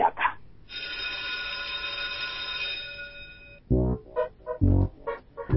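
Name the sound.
school bell ringing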